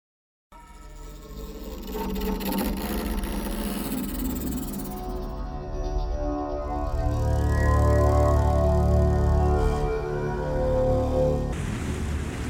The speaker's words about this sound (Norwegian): Det fosser foran baugen på et stort, flott vikingskip som seiler nordover langs vestlandskysten så fort det går an. Det stripete seilet i rødt og hvitt er fylt av vind og står i en bue.